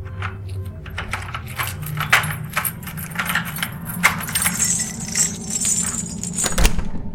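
Keys jingle and clink in irregular metallic bursts while a door lock is worked open with a small key, with a low rumbling hum underneath and a sharper clack near the end. No one speaks.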